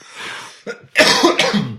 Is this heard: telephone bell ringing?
no